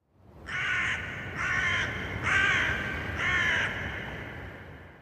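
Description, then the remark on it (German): Four harsh crow caws ring out in a steady, evenly spaced series, loud, over a low background rumble, with no voices. “Krähen bleiben mysteriös, ohne exotisch zu sein, was ein sehr seltenes Phänomen ist.”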